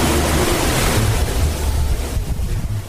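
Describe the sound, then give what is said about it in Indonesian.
Steady morning beach ambience at Bengkak Beach, Wongsorjo, Banyuwangi, East Java, Indonesia, facing the Bali Strait under a blazing sun: surf washes in continuously, a broad rushing wash of waves mixed with some wind buffeting the microphone, loud, with no voices. “Pagi di Pantai Bengkak, Kecamatan Wongsorjo, Banyuwangi, Jawa Timur. Dari sini kita bisa melihat langsung Selat Bali.”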